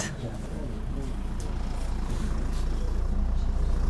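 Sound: tractor engine running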